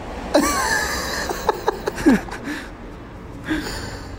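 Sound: voice imitating heavy panting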